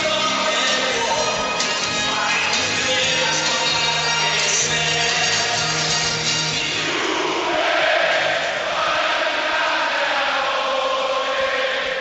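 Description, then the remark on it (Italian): A huge stadium crowd of Juventus fans sings the Juventus anthem together before a match against Borussia Mönchengladbach in a nearly full stadium, a dense, roaring wall of voices with a steady swelling melody filling the whole space continuously. “eh, stanno cantando l'inno, l'inno, della Juventus e quindi lo possiamo far ascoltare sottofondo per i tanti tifosi che sono collegati in questo momento”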